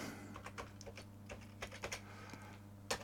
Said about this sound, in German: Die ist aber nicht schön, die ist ziemlich laut, die Tastatur.